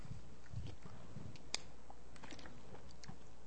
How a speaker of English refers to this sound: take a little sip here.